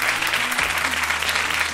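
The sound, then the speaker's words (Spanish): An audience breaks into steady applause at the Jarro Café in Madrid during a Cadena 100 radio show: a dense wash of many hands clapping at a constant, fairly loud level with no pauses, faint low hum underneath. “Un aplauso para ellos.”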